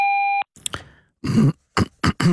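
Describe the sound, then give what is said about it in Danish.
A single steady electronic voicemail beep after a Danish answering message, about half a second long, followed by someone clearing their throat and coughing a few times in short bursts. “Indtal venligst en besked efter tonen.”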